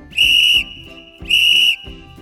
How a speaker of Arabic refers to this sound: غضب ديسوم من فريقه فركض ودفع لاعبا ليأخذ الكرة منه ارتفع فورا صوت صافرة الحكم